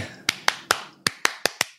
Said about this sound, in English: Welcome to New York Cosmos Soccer right? And then you know the clap. Do you know that clap for Cosmos.